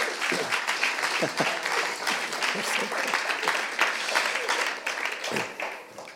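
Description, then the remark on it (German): Sustained audience applause welcoming a speaker onto the stage, a dense, steady wash of many hands clapping at a fairly even level for several seconds, with a few faint voices or cheers mixed in. “Wir wollen ihn mit einem herzlichen Applaus willkommen heißen.”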